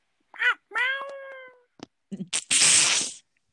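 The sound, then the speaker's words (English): A person voices a couple of loud, drawn-out imitation meows with wavering pitch, followed by a brief burst of breathy, noisy vocal sound. “no, that's what they sound like when they when they yell. Did you meow?”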